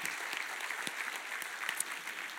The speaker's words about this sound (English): Can you give the Lord a great big hand clap today because you've seen it? Amen.